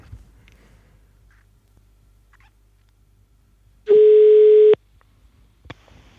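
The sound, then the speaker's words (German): A single steady telephone ringing tone sounds once for almost a second, loud and clear against a quiet, empty line, followed by a faint click, as someone is being called on the phone. “wir versuchen ihn mal anzurufen, ans Telefon zu bekommen.”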